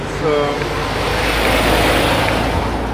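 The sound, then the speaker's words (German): Busy street traffic on Warschauer Straße fills the whole stretch with a steady, loud roar of engines and tyres, a deep low rumble underneath and a brief tonal engine whine rising early on. “Aber die Warschauer, die ist etwas laut.”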